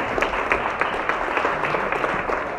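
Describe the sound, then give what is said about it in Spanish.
Sustained applause from a crowd clapping for the Lord, a dense, steady wash of many hands clapping at once with no pauses, fairly loud throughout. “Mira, síguele aplaudiendo al Señor, síguele aplaudiendo a tu papá, síguele aplaudiendo.”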